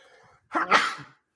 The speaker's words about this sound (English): All right, um, I'm about to sneeze. I think.